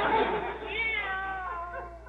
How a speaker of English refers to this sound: What is going on around here? I'm certain that was a cat. Well, uh, once in a while, a stray dog or cat will pass by outside.